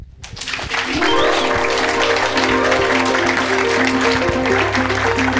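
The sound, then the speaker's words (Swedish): A crowd breaks into sustained applause for six conversation participants, swelling quickly and holding steady and loud, with sustained musical tones playing underneath the clapping. “Men ett stort och varmt tack till er sex personer och en stor applåd.”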